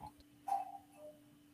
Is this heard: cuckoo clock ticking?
yes